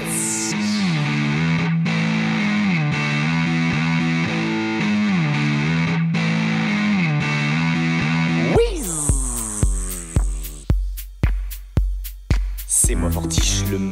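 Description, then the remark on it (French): A heavily distorted electric guitar holds a thick, sustained chord, then hammers out about nine loud, sharp chord stabs, each ringing briefly before the next. It is played alone. “Maintenant, vous allez écouter l'accord On dit particulier. Pourquoi va t on ensorcelé de la guitare”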